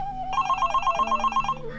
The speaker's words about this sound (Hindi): ला phone बज रहा है दे